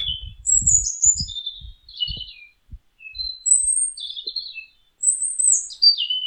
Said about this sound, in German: Ich hoffe, dass man sie hören kann. könnt also hören, der Vogel singt. Ich hoffe jedenfalls, dass ihr die Nachtigall hört.